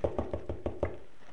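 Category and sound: impact, knocking on a door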